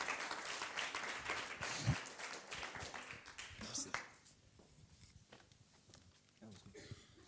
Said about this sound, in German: Geben wir uns einen Applaus.